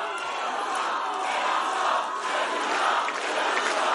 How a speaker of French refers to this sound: Non, non, non. Ne craignez. Ne criez pas mon nom. Vous le savez pourquoi il ne faut pas le faire.